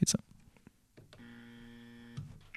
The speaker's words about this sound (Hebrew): היה פה באזר, אם לא שמעתם.